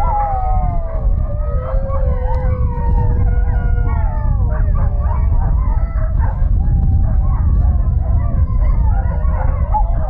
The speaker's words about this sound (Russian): Так воют ездовые собаки породы хаски. Собачья ферма находится на окраине города, рядом с местной достопримечательностью, дорожным знаком «Осторожно, медведи».